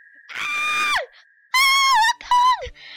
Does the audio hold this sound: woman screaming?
yes